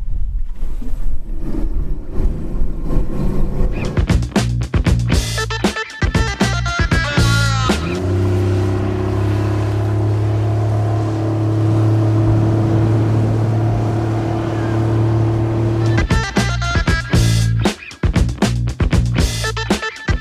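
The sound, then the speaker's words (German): A water taxi motorboat engine drones steadily on a lake, its low hum rising to a sustained higher-pitched tone in the middle as the boat speeds up, with splashing and wind around it and no talking, on a trip from a hotel into Zürich. “Wenige Fahrminuten mit dem Wassertaxi.”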